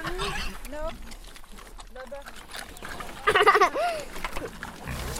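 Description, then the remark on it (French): Pigs grunt and let out a few short, high squeals as they eat food thrown to them, with one louder burst of squealing near the end, while people talk quietly in the background. “Ah bah si les cochons, on, leur jette beaucoup de nourriture, ils mangent tout.”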